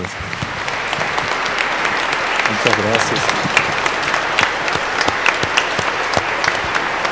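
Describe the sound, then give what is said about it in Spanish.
Sustained applause from an audience at a church mass, a dense steady patter of many hands clapping at even loudness for several seconds, with a brief spoken thank-you partway through. “Nos vamos a dar un aplauso, aunque no estén.”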